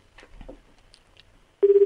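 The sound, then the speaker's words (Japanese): After a stretch of faint rustling and muffled murmurs, a loud series of quick electronic telephone beeps starts abruptly near the end, five or so in steady rapid rhythm, like keypad dialing tones, as a telephone number is dialed to make a call. “こんなに電話かけまくって。”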